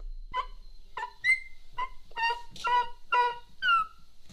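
A dog whimpers in a string of about nine high, whiny squeals, some short and some drawn out, coming in an uneven rhythm with no talking.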